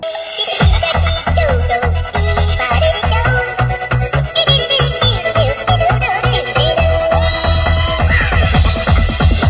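A sped-up remix of a whistled tune plays loud and close, a bright, high melody bouncing over a quick, steady bass beat throughout, with no one talking.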